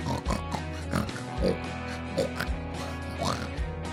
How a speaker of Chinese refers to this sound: 小猪接连不断的从天而降，好多猪的声音哦，对不对？